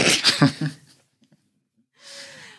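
A loud, rough cough bursts out in a few quick jolts, followed by a short silence and then a raspy, wheezing intake of breath.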